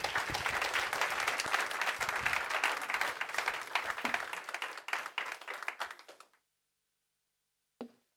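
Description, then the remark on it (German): An audience applauds to welcome someone, a dense wash of many hands clapping for about six seconds before it cuts off abruptly, followed by silence and one brief sound near the end. “Aber gut, wir wollen den Moment jetzt nutzen, also begrüßen wir mir mit einem Applaus.”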